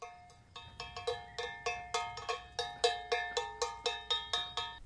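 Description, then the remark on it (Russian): A cowbell solo from a musical film, a steady run of bright, metallic clanks with ringing overtones, each strike decaying quickly before the next, growing slightly louder as it goes. No voices. “Поэтому Фильм сняли в жанре мюзикл с песнями, плясками и соло на коровьем колокольчике.”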